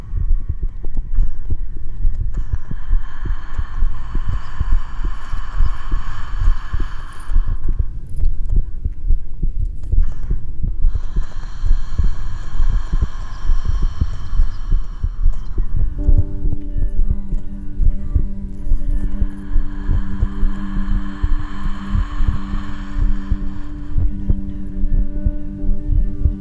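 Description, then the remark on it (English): A recorded human heartbeat throbs loud in a steady, continuous pulse, layered with a soft droning hum; a sustained harmonic tone joins in low partway through. “I, I recorded a few different heartbeats and then.”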